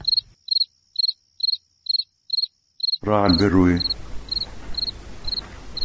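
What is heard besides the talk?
crickets chirping at night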